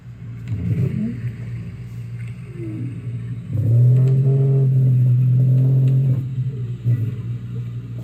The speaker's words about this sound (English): That's the sound of a North American right whale. With fewer than 400 left along the Atlantic coast, the right whale will soon be extinct if we don't act now.